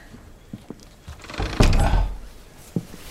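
A door shuts with a solid, muffled thud after a few soft knocks and shuffles, followed by a brief fading rumble and another light tap.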